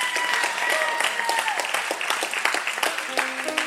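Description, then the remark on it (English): A crowd of people claps steadily together, a dense continuous patter of many hands with a few faint tonal murmurs mixed in, holding a fairly even loudness throughout. “Come on, clap.”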